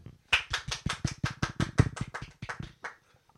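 A short burst of hand clapping for the actor Chadwick Boseman: quick, sharp, evenly spaced claps, about fifteen of them over two and a half seconds, fairly loud and then stopping abruptly.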